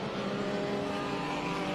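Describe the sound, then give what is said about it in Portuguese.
Race car engines roar in a steady, dense drone as a spread-out field of cars passes on the track during a race, several cars blending together with a continuous buzzing whine and no voices. “Onde você olhar na pista agora, vai ter carro.”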